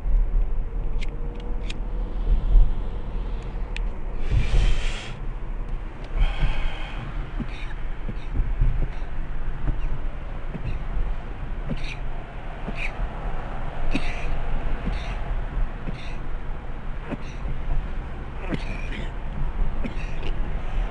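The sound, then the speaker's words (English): Someone takes a long, breathy inhale from a smoke, a hissing draw of about a second followed by a shorter one, over a steady low engine-like rumble with scattered small clicks. “Let me take this fucking hit before I get more aggravated.”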